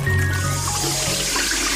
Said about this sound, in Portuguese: Mas por que essa torneira aberta quando está fazendo essa barba?